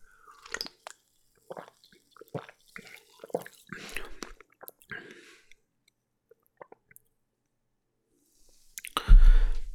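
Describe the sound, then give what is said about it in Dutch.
Wet sipping and swallowing of an orange soda from a can, with scattered small mouth clicks and gulps, ending in a sudden louder clatter or exhale. “Ik ga eens een slokje nemen.”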